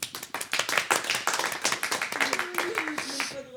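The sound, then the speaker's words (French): An audience claps steadily throughout as an applause-meter vote for the team 'les Biquettes' after their joke in a joke contest. A dense patter of many hands holds at a moderate level, while a voice briefly calls out or cheers near the end. “Attention, nouvel applaudimètre pour les biquettes.”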